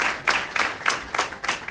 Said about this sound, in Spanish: El ayuntamiento decretaba tres días de luto, una concentración en recuerdo de la víctima terminaba con aplausos.